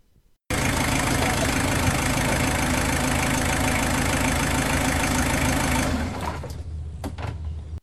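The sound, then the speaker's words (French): A car engine runs steadily, then cuts off after about six seconds as the car stops in front of a school, leaving a few faint clicks and knocks as the vehicle settles. “La voiture du père de Nicolas s'arrête devant le collège.”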